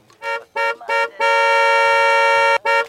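A car horn honks three short times in quick succession, then blares in one long sustained blast before a final short toot, loud with no talking.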